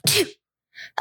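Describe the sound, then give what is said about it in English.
A single loud sneeze bursts out sharply, followed after a short pause by a couple of brief, quieter vocal sounds. “Bless you.”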